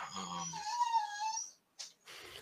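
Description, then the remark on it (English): A female dog whines in a long, high, wavering tone for about a second and a half, then gives a brief breathy squeak after a pause, clear with no talking. “Um, sorry, that's my dog.”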